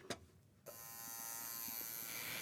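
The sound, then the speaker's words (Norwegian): A tattoo machine in Norway starts up after a brief click and a moment of quiet, then buzzes steadily, a dense electric hum that holds without a break as its needle goes in and out of a 20-year-old man's skin, drawing motifs in ink. “Dette er lyden av en tatoveringsmaskin.”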